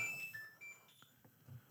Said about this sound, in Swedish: Vem fan ringer hit nu?